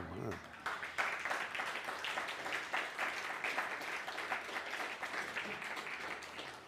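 A crowd breaks into steady applause in welcome at the start of a class on the Torah portion Noach in the Valle de Orizaba, many hands clapping in a dense, sustained patter at a fairly even loudness for several seconds, with no speech over it.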